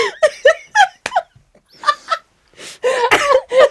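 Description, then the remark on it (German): Bursts of laughter dissolve into a short coughing fit brought on by the laughing, several rough, breathy coughs tumbling over one another near the end, with a brief pause in the middle. “Oh, ich kriege einen Hustenanfall, wenn ich so lachen muss.”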